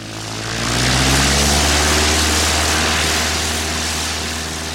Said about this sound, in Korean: 경비행기가 탈탈거리며 날아올랐다.